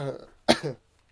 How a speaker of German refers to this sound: Gut, nochmal einmal räuspern. Gesundheit.